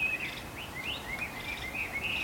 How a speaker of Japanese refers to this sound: すごい素敵な鳥のさえずりが